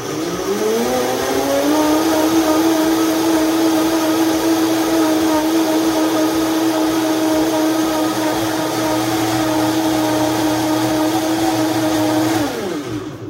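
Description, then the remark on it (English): A blender making a smoothie with spinach roars to life, its motor whine rising quickly, then grinds steadily and loudly for about ten seconds before winding down abruptly. No one speaks over it. “Throw the top on, but I remembered this time and turn on your blender.”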